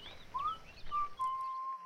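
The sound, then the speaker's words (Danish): Birds sing in light evening rain: a short rising whistle, then long steady pure notes, with faint higher chirps and a soft, steady patter of rain. “Fuglene synger i regnen, og Geo flytter tilbage til dem.”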